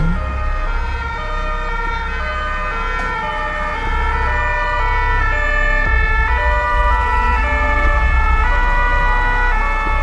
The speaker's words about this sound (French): Et je crois que les sons les plus difficiles, les plus douloureux et ceux qui m'ont poursuivi et même encore maintenant, c'est quand j'arrive sur le boulevard et qu'il y a toutes les sirènes.